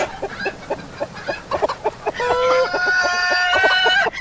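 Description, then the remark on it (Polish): A hen clucks in a quick run of short, sharp notes, then breaks into a loud, drawn-out cackling squawk that holds for a couple of seconds, clear. “Dawaj, dawaj tę kurę.”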